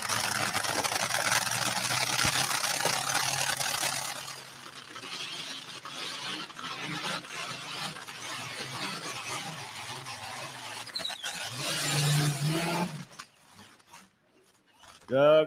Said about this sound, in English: This tractor is running a Rolls Royce V12, 2,240 cubic inches, used in the Spitfire fighter aircraft from England in World War II.